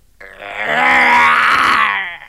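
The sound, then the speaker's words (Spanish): A single loud, sustained growl made by a human voice imitating a tiger, rough and throaty, rising in force and holding for about two seconds before trailing off, heard alone. “Suena como un tigre, se parece a un tigre, entonces es un tigre.”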